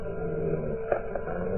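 A hungry pack of wolves surrounding the boy Solín in a Calimán radio adventure growls in a low, continuous, rumbling snarl, with a couple of brief sharper snarls rising out of it. The sound is muffled and thin, with no voices.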